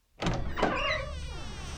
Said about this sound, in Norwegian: Plutselig går håndtaket på kontordøren til Aud sakte ned. Og sakte, sakte åpner døren seg innover i kontoret.